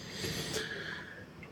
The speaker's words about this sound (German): Ähm, das heißt, man hört auch im Hintergrund ein bisschen so eine Heizung vor sich hin brummeln hier.